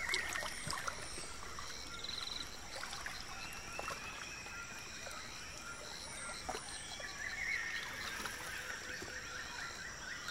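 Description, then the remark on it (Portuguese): Canoe paddles dip and slide through the water of the Tapajós River near Alter do Chão in a slow, steady rhythm, with soft trickling and splashing while birds call in the background. “Tudo começa com um passeio de canoa pelo Rio Tapajós, ouvindo os remos deslizando sobre as águas”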